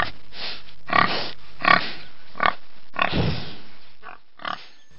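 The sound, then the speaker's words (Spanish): A fat pig sleeping in the sun grunts and snorts in a series of short, rough bursts, about five of them spaced irregularly, fairly loud, with no talking. “La tortilla corría y corría y estuvo a punto de tropezar con un gordo cerdo que dormía al sol.”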